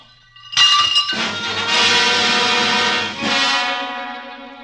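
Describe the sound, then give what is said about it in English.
A thrown vase hits and shatters with a sudden crash, followed by a bright, ringing spray of glassy clinks and tinkling shards that sustains for several seconds before fading out. “My vase, if you please. Oh, sure. Your vase. Here, catch. No.”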